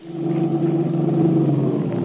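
An Erskine Coupe's engine rumbles steadily and loudly for about two seconds, its low drone holding a constant pitch as the car pulls away carrying musicians with their instruments, heading for Baltimore Street. No voices are heard.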